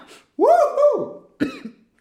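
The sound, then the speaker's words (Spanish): A person coughs twice: a loud, drawn-out, raspy first cough, then a shorter second one after a brief pause, with no talking. “me emociono y empiezo a toser.”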